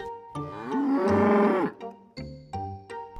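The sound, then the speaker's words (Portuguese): A cow lets out one long, loud, drawn-out moo, followed by a few bright, bell-like clanks spaced evenly apart. No one speaks. “A velhinha foi então buscar a grande vaca marrom.”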